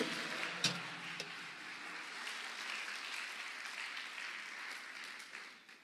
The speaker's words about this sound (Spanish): Si usted lo cree, le da palmas al Señor, a su nombre.